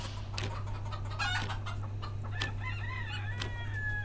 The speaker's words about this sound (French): Du jardin émane parfois le caquettement de Gertrude, Cunégonde, Colette et Rosine, les poules de l'ancien ministre Bernard Cazeneuve.